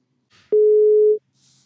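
A single steady telephone ringing tone from an outgoing call, a plain mid-pitched beep lasting under a second, with faint soft hiss before and after and no voices.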